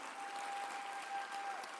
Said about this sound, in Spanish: Si lo crees conmigo, dale un aplauso a Jesús ahí donde estás.